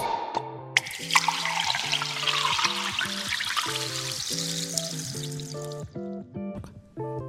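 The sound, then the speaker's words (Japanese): Sparkling wine made from Shine Muscat grapes from the foot of Mount Fuji is poured steadily into a glass for a toast, a fizzing rush lasting several seconds, over a light melodic tune playing in the background. “皆さんお手元のグラスはご用意できたでしょうか”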